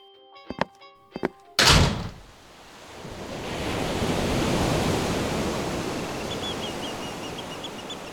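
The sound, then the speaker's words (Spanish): A few hollow knocks and a sharp thump give way to the broad rush of a wave surging up a beach, swelling loudly and then slowly receding, with no voices. “Se dirigió hasta la playa, se sacó los zapatos y hundió los pies en la arena. Le encantaba el mar al atardecer.”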